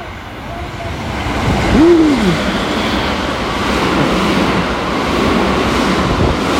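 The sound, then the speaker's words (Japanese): A rapid express train bound for Nara roars through the station, a loud continuous rushing and rumbling that fills the whole stretch, with a brief rising-falling whistle-like tone near the start. “あかん電車通過するのちょっと一回切ろうか一回切り”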